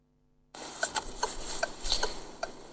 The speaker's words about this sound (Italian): notate bellissimo in sottofondo ci sono le quattro frecce secondo me, io adoro i rumori minimi, adesso lo rimandiamo, sentitele in sottofondo che belle sono. Toc, toc, toc, toc.